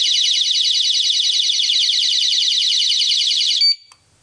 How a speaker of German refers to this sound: Oh, da hat's gepiepst. Die Alarmanlage hat sich scharf geschaltet.